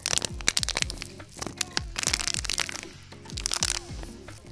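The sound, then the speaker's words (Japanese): Repeated crinkly crackling bursts of a thin plastic PET bottle being squeezed and crushed, several squeezes in a steady rhythm, fairly loud, with no talking; recorded on a smartphone as sound material. “ペットボトルを潰そうとね”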